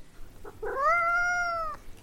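A single drawn-out cat meow, rising at the start and then holding steady before cutting off, heard clearly with no one talking.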